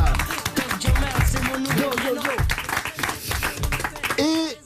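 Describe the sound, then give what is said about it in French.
An audience applauds in a steady, dense wash of clapping that runs the whole length, with voices and cheers rising over it, on a Sunday afternoon RTL show with Jamel Debbouze, applause called for actress Alice Belaïdi. “Nous avons également à vos côtés, et là je demande deux fois plus d'applaudissements bien sûr, celle qui est votre chérie dans le film Le Nouveau Jouet dont on va parler pendant une heure et demie, Alice Belaïdi.”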